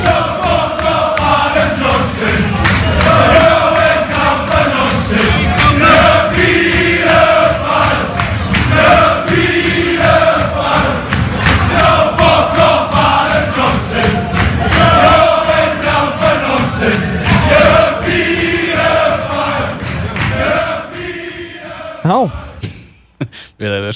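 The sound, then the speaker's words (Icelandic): A loud group of Newcastle supporters sings a rhythmic chant together in a crowded pub about a former Sunderland player, voices rising and falling in repeated phrases, with thumps and background crowd noise, before fading out abruptly near the end. “þeir hittust á, á barnum og, og þeir sungu þetta”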